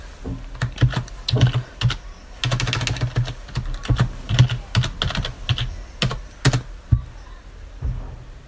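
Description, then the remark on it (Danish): Rapid, uneven keystrokes clatter on a computer keyboard as someone tries to log in to a VPN on a network, coming in quick bursts with brief pauses, fairly loud, with no one speaking. “Prøv at se jeg har tastet forkert.”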